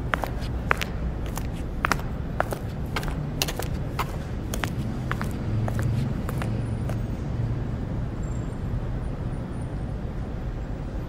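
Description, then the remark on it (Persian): Footsteps of a person walking toward a building, a steady series of sharp, clicking taps over a constant low rumble, the steps thinning out and stopping partway through while the rumble carries on. “نگاهی از پایین به بالا به ساختمان انداخت و سپس نفس عمیقی کشید و به سمت اون قدم برداشت”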